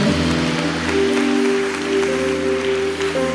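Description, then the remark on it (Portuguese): A crowd applauds steadily throughout, the clapping blending into a wash of noise beneath sustained, droning keyboard chords that hold underneath at a fairly loud level. “Pode aplaudir mesmo, porque esse é o poder que há no nome de Jesus de verdade.”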